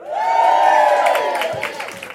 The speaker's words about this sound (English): That was, uh, by, by the sound of it, that was just women cheering.